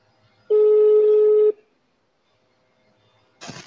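A single loud, steady electronic telephone tone from a WhatsApp call lasts about a second, followed by near silence and then a short burst of rough noise at the very end, as the call is forwarded to voicemail.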